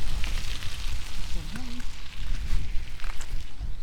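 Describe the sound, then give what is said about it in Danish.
A couple of recreational cyclists on mountain bikes rolling past on a trail, their tyres giving a steady, crackling crunch over gravel that rises and dips for a few seconds, with a brief faint voice partway through. “Det var lige et par motionister, der kom cyklerne forbi på mountainbikes.”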